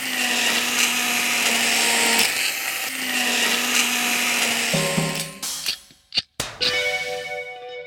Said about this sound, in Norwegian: Jeg tar et skritt tilbake, for jeg er litt redd for å at uh, du skal ha en slags blenderulykke hvor alt spruter uh, overalt, sånn som man ser på film.